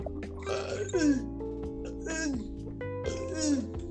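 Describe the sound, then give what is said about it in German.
Three strained, croaky forced burps a second or so apart, each with a rough gurgling tone that slides down in pitch, over a steady background hum. “Ich wollte, ich wollte einen Röps rausdrücken.”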